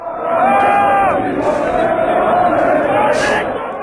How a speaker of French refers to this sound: qu'on entend, c'est la foule sur la grande place de Lille hier soir. Les supporters ont célébré le quatrième titre de leur équipe en Ligue 1. Le LOSC a battu Angers 2 à 1.